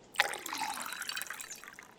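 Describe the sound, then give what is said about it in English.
Spring water from Colorado sloshes and splashes inside a container, starting with a sharp slap and then churning briefly. It is moderately loud, with no voices. “Fresh spring water from Colorado”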